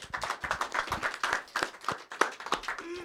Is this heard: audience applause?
yes